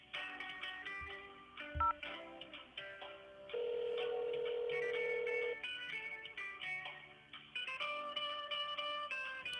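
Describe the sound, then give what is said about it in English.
Telephone tones play with no one speaking: a scatter of short dialing beeps, then a long steady ring tone held for about two seconds, followed by more tonal electronic phone sounds, as a call to an employment-help group in Southeast Baltimore goes unanswered. “Unfortunately, I wasn't able to get anyone on the phone.”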